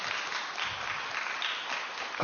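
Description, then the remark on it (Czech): An audience claps steadily, a dense, even wash of many hands with no pauses, sustained at a fairly loud level throughout. “Ale my se vlastně, ano, můžete zatleskat, tady byly tendence.”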